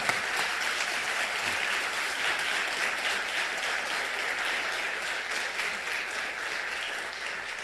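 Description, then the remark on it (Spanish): Steady audience applause at a literary event with writers Rosa Beltrán, Hernán Arazabala, Vicente Quirarte and Bernardo Ruiz, a dense crackle of many hands clapping at an even, sustained loudness without any voices. “Eh, y les pido un aplauso, aprovechando.”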